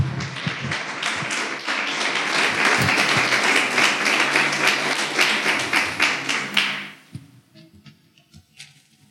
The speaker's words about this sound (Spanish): Si sí, aplauda, si va, no amenace, hágale.